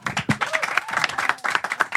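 An audience applauds steadily for about two seconds, a dense, continuous patter of many hands clapping with no pause, fairly loud throughout.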